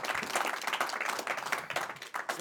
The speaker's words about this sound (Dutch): Wel wat een applaus. Ja, is eh, te gek man.